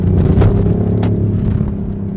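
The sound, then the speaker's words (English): The petrol engine of an i8 hybrid sports car in sport mode drones steadily, its low rumble swelling slightly as it revs and engages, with faint whirring overtones and no voices. “Oh, suddenly you can feel that that engine, that petrol engine's really yeah. taking over.”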